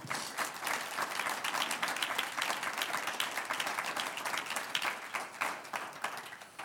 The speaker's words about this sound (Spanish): Un aplauso al Señor.